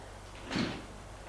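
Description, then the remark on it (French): The door of a house opens after the doorbell is rung, one brief, breathy swish and soft thud in the middle, set against a quiet low hum; no one speaks. “Et elle va sonner à la maison La porte s'ouvre.”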